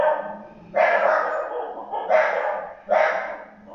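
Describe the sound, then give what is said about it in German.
Dogs barking, the speaker's own dogs: three loud, full barks at uneven intervals with brief pauses between them, with no talking. “Moment übrigens, wo ich jetzt wahrscheinlich früher rausgegangen wäre, abgebrochen hätte und richtig rumgebrüllt hätte, weil meine Hunde meine Arbeit sabotieren.”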